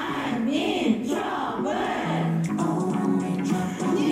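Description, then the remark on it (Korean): A large crowd of NU'EST fans chants loudly in unison a fan chant they sent in at NU'EST's request, a K-pop style cheer with rhythmic, sing-song shouted phrases that carry continuously from start to finish, full. “얼마 전 뉴이스트가 팬카페에 응원법을 보내달라는 과제를 내줬는데 그 결과물을 보내왔다고 해요.”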